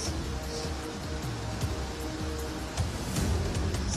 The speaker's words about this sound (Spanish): Y la fuerza del río sigue carcomiendo la tierra.